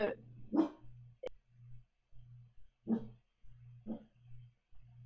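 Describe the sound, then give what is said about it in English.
A dog barks several times in short, separate bursts, fairly loud, with a low steady hum running underneath and brief gaps between the barks. “the, dog agrees the dog agrees”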